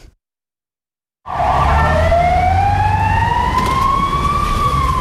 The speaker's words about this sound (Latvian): Ar skaļām sirēnām garām traucas Rīgas satiksmes avārijas dienests, kas dodas uz Elizabetes un eksporta ielas krustojumu.